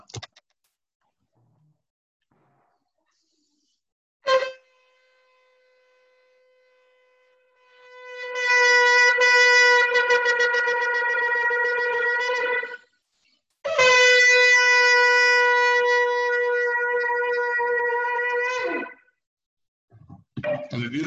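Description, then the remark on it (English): A shofar (ram's horn) is blown by a rabbi on a Shabbat morning: a short tentative note, then a steadily held blast that swells loud, a brief break, and a second long brassy blast ending abruptly. “I'll, i blow the shofar for anybody who hasn't uh, who hasn't heard it this morning.”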